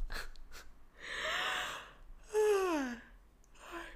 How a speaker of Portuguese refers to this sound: Agora um bocejo. Um arroto, um espirro, um bocejo.